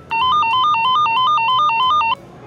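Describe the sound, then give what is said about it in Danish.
A loud electronic metal detector alarm at airport security sounds for about two seconds as a man walks through, a rapid warbling beep that flips quickly between two pitches before cutting off abruptly, with no voices over it. “Men da faren går igennem, går der straks en alarm i gang.”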